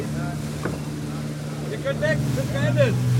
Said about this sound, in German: Während wir von der USS Mount Whitney auf einem Gummiboot mit starkem Motor zur deutschen Fregatte Bayern übersetzen, ein vielleicht zehnminütiger Ritt über die Wellen